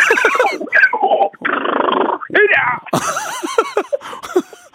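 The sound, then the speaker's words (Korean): A person imitates a zebra's call loudly on a radio show: a run of harsh, barking yelps and wheezy, breathy brays, ending with a quick string of rising yips. “예, 백화점 상품권 받으신 입장에서 지금은 이제 마음 편하게 한번 얼룩말 들어볼 수 있을까요?”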